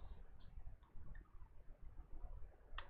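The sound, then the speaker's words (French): Quiet, sparse clicking like keys being tapped on a computer keyboard, a few faint taps over a low background hum, ending with a brief cluster of sharper clicks. “Pendant ce temps, Bellefeuille tape sur son clavier.”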